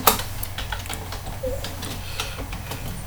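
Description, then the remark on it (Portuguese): Quick, irregular keystrokes clatter on a computer keyboard, a steady run of light clicks over a low background hum, with no voices. “Vou escrever agora.”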